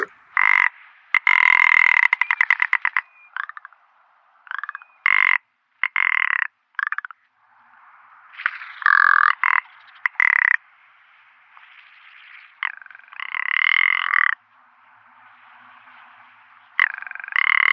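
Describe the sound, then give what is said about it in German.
A male rock ptarmigan's rattling courtship song: dry, croaking rattles delivered in repeated short bursts with brief pauses, loud, with no voices. “Während der Balz trägt das Männchen knarrende Strophen vor, und zwar am Boden, mit aufgeblasenen Federn oder im Flug.”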